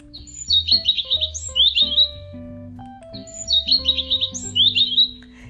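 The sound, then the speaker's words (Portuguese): Small birds chirp and twitter at sunset in two lively, bright bursts, over a gentle, steady musical background with sustained low tones. “Oh, o sol está se pondo. Ouçam os passarinhos.”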